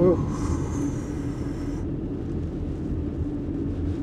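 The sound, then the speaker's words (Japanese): A very large truck rumbles past on a back road, its deep, heavy engine drone steady and loud for the whole few seconds, with a faint high-pitched hiss fading out partway through. “すっごいでかいトラックがね裏道なのに走ってて思わず路肩にね寄せて通り過ぎるのね待っちゃいましたね”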